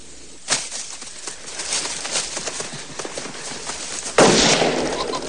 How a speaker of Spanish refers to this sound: Se para al escuchar el disparo, pero vuelve a correr y se esconde tras un seto.